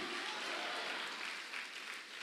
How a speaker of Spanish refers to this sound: Dele palmas al Rey de la Gloria. A su nombre.